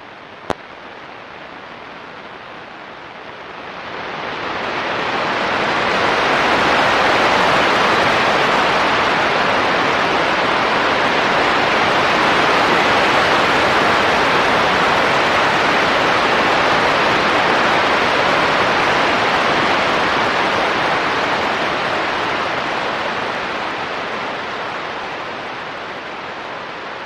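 Solar radio noise from a new-cycle sunspot, picked up on the shortwave band while the rest of the sun was quiet: a dense, rushing static hiss that swells up after a few quiet seconds, then holds loud and steady to the end, with no voices.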